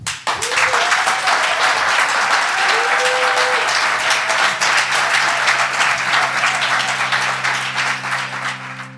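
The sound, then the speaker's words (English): On a count of three, a large audience breaks into sustained applause for a guest, dense and loud throughout, with a few whoops rising over the clapping before it begins to thin at the end while steady music tones play underneath. “So I know you would clap really enthusiastically, even if this wasn't going on social media, but because it is, if on the count of three, you could give a huge round of applause for Mateo Jaramillo.”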